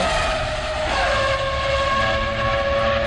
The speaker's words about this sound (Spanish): Que incluso hicimos las comparaciones de los ruidos. Sí, que pusimos un, incluso pusimos un, un carro del 80, un Fórmula 1 del 80.